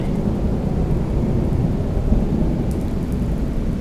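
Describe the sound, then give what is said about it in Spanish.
A heavy thunderstorm: deep, continuous rumbling thunder rolls beneath steady pouring rain, loud throughout with no voices, the low roar staying dense and unbroken for the whole few seconds. “mandes a una puta tormenta, joder.”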